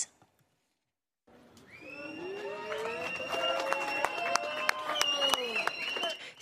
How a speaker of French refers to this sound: C'est sous les applaudissements de ses soutiens que le père de la petite fille agressée est sorti du tribunal.